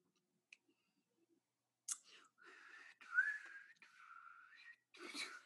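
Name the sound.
person attempting to whistle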